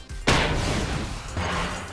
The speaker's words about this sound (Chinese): 牢房的大门被兔子警长一拳砸飞了